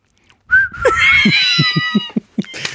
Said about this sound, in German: Pfeift einfach wie ein Handy, Alter, wie so ein X-Chromosom der Fähne.